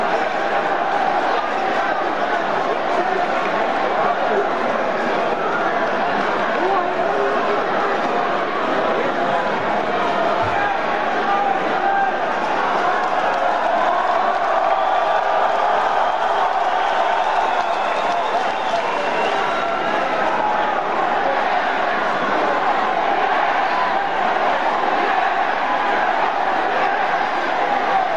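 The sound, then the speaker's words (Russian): A large arena crowd shouts and roars without pause, a loud, dense wall of mingled voices that holds steady for the whole stretch, with no single speaker standing out. “Что происходит? Что зрители кричат, я не понимаю.”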